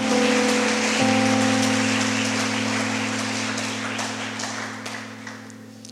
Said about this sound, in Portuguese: Dá uma salva de palmas ao Senhor, porque Ele é santo. Aleluia.